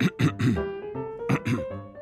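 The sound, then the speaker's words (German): Someone clears their throat, two separate bouts of short, rough, gravelly bursts, the first with three quick pushes and the second with two, a faint steady tone lingering between them. “Und wenn er nervös war, dann fing er an, sich zu räuspern.”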